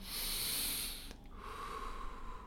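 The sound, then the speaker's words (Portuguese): A deep breath taken before a shot: a loud, airy inhale lasting about a second, followed by a quieter, softer stretch of air with a faint steady tone. “Então faço uma respiração.”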